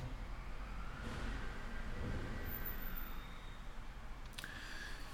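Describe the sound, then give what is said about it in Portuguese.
A garbage truck drives past, its deep, steady engine rumble filling the whole stretch, with a faint whine and a short hiss near the end. No one speaks. “Gente, não repara o barulho, é o caminhão de lixo passando, tá?”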